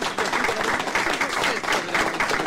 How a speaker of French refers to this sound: Que se passe-t-il ton, son est pas très bon, on entend beaucoup l'applause, mais pas.